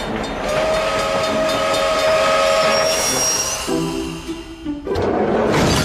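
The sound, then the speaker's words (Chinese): A train carrying frozen fish rumbles steadily with high, sustained squealing tones like brakes or a whistle, then the sound shifts to lower groaning tones as the train comes to a stop, with no talking. “只要火车一停下来，就赶紧把冷冻鱼送上货车。”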